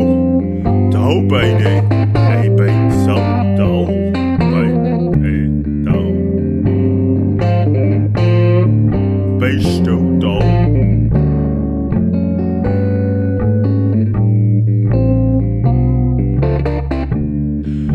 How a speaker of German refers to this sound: Mit einem wunderschönen neuen Jingle begrüßen wir euch.